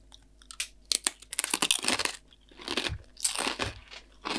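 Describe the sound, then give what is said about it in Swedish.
Wet, crunchy chewing of vegan cheese, with irregular bursts of mouth sounds and crisp crackles repeating over about four seconds, moderately loud, with no talking. “Mm -hmm den, jag tycker om, jag tycker det här är en vettig ost.”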